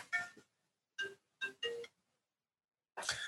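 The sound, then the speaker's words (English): A mobile phone ringtone chimes in short bright melodic bursts separated by brief silences, clear, with no talking over it. “mute your phones.”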